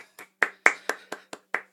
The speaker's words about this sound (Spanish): Démosle un gran aplauso a Javier Muga.